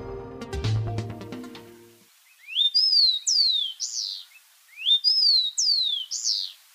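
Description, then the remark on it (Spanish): After a short musical sting, a rufous-collared sparrow (copetón común) sings two clear song phrases, each a rising whistle followed by slurred, descending sweet notes, with a brief pause between them. “Este es el copetón común, que se puede escuchar y observar en Bogotá casi en todas partes y a todas horas.”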